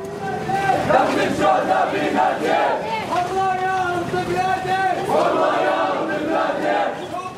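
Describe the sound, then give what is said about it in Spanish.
At a funeral procession for a fallen fighter named Ayser, a large crowd of mostly heavily armed men chants slogans fiercely and in unison. Many voices shout together in a loud, sustained, rhythmic roar with rising and falling calls. They chant pride in another martyr and proclamations against Jews, amid Hamas, Fatah and Islamic Jihad flags. “Los cánticos y las consignas esta vez son mucho más feroces.”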